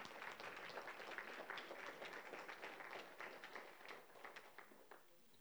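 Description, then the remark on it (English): An audience at Windham in Refuge Church applauds steadily, dense overlapping claps from a group, holding at a consistent level before tapering off near the end. “Yeah, you can, you can clap for that.”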